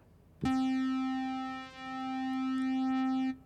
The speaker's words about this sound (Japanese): これ波形の形としては、まあ、スクエア正方形っていうね単語ついてるんで垂直に上がって、え真横に行ってまた垂直に下がるっていう形で四角がこう描かれてる、え波形ですね。これがスクエアウェーブちょっと3つ聞き比べてみましょう。まず、え三角波のこぎり波で最後に、えー、スクエアウェーブ